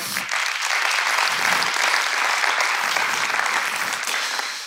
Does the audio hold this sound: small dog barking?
no